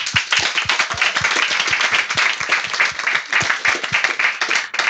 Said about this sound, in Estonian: teeme talle julgustava aplausi